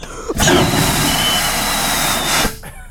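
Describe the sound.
A voice imitates the valve toilet flush of a shopping-mall restroom in Germany, likened to an airplane toilet flush, with a loud, steady rushing whoosh that starts abruptly, holds for about two seconds, then cuts off sharply.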